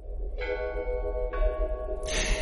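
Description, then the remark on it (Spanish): Church bells ring out in slow succession during the pandemic, three resonant strikes whose tones hang and overlap, heard over a steady low background rumble with no one speaking. “Bueno, ese sonido y el de las campanas.”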